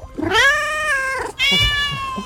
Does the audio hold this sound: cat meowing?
yes